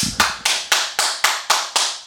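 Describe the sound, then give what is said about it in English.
One person claps steadily, about eight crisp claps at an even pace, mimicking a wrestling crowd's applause when the time limit bell rings. No talking is heard. “They just stand in the center of the ring and exchange blows for 20 minutes, and then the time limit bell rings, and the house just explodes in yep, applause.”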